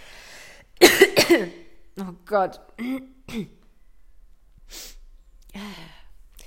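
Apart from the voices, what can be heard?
coughing and throat clearing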